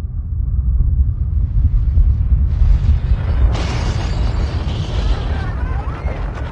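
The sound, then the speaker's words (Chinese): A continuous deep earthquake rumble sound effect, loud and steady, with crackling, crumbling debris sounds building over it midway through as the shaking intensifies. “一场突如其来的天摇地动，吓坏了全国上下的所有人。这场地震造成了彩虹桥的断裂”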